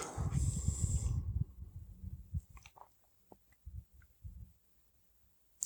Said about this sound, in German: Und Ja, jetzt atmet es kommt ein Atemzug.